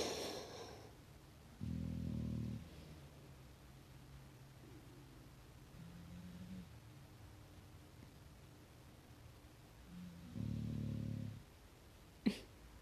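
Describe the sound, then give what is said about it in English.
A pet lying right next to the speaker snores: two low, rumbling snores several seconds apart, with softer breathing noises in between and a brief sharp click near the end. No one speaks. “Sorry, you can probably hear them snoring, especially this one. She's right next to me.”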